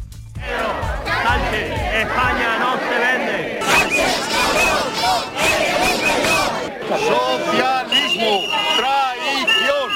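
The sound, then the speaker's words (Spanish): A large protest crowd in Madrid, convened by Vox, shouts insults against Pedro Sánchez and Puigdemont in unison, many voices overlapping in loud, rhythmic chanting and yelling that continues without pause, with low rumbling underneath at the start. “contra Pedro Sánchez, contra Puigdemont, insultos como han podido escuchar en Madrid.”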